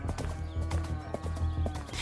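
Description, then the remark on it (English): Horse hooves clip-clop in a steady rhythm, several evenly spaced knocks over a low, continuous rumble, fairly loud. “She mounted a horse and rode from camp to camp and station to station, recruiting rebels.”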